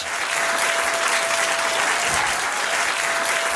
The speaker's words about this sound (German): Beifall und Jubel in einem Gericht.